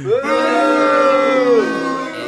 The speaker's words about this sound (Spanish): el abucheo para Elías también, pero cortito